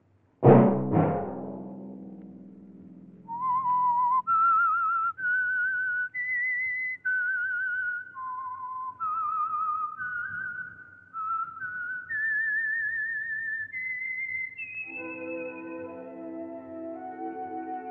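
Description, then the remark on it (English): After two sharp opening hits, a clear whistle carries the slow melodic theme of The Whistler, the Signal Oil radio program, each note held and stepping up and down, ending on a sustained high tone over a soft instrumental chord. “Let that whistle be your signal for the Signal Oil program, The Whistler, each Sunday night at the same time.”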